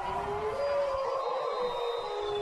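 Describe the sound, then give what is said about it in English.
A chorus of wolf-like howls at a football game rises and holds steadily, several long overlapping wails blending into one continuous, fairly loud sustained cry with no talking. “And there you hear the Wolves howling.”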